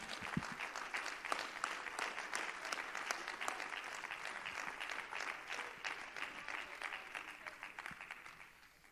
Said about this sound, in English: Oh, why don't you clap your hands and thank Him for His sustaining power?